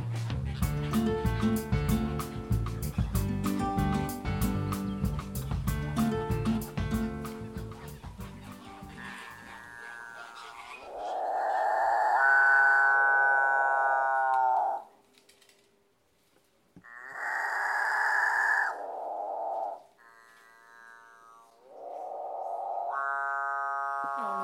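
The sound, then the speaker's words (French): After a busy, clattering stretch, a capuchinbird in an aviary gives several long, droning calls like a cow's moo, each rising and falling over a few seconds, loud with short gaps between them. “son qu'on vient d'entendre, c'est le chant des coracines chauves.”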